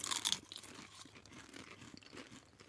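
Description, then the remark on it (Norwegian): Crisp crunching of very curly root vegetable chips being tasted, a sharp bright burst of crackle at the start followed by softer, irregular chewing crunches throughout, fairly quiet with no talking. “Skal vi dempe Vi demper lyden vår litt, og så tar vi en uh, smak.”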